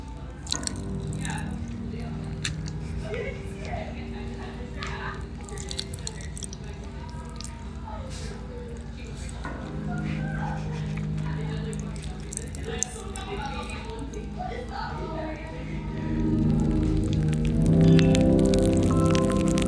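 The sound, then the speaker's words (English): A sound track made to evoke popping candy: dense, continuous crackling and popping, like fizzing popping candy, scattered quick snaps over a low humming drone that swells louder near the end. “we're playing on that particular perceptual phenomenon in order to kind of create uh, the most crackly popping candy you've ever experienced”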